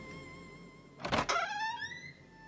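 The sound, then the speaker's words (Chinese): A door swings open with a short rushing burst, followed by a drawn-out, rising creak of squeaky tones that slowly fade. No one speaks. “吱呀一声，门开了。”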